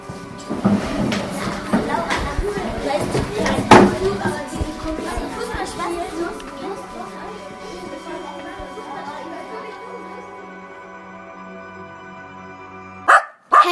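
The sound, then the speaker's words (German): A dog that someone has brought along barks repeatedly in short bursts over a busy background of murmuring voices and chatter, fading toward the end before a final loud sound. “Leute, guck mal, ich habe meinen Hund mitgebracht.”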